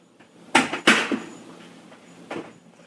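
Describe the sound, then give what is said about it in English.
A knife chops carrots on a cutting board: a few sharp, woody knocks at an uneven pace, the first two loudest, with a softer chop trailing after a pause. No one speaks. “So we are chopping what carrot now?”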